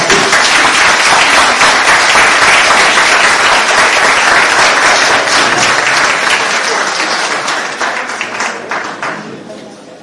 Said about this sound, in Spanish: Un aplauso para él.